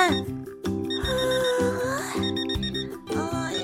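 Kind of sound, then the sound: household object, alarm clock ringing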